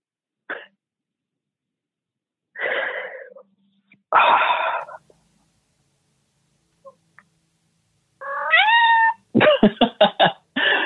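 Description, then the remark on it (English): A cat meows several times, short harsh cries separated by pauses, building to a longer rising yowl and a rapid series of choppy, strained calls at the end. No one speaks. “at least I have this cat here to take care of me.”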